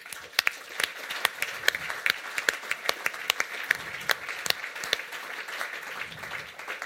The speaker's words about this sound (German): Herzlichen Applaus euch, Patreons und allen anderen einfach nochmal. Merci.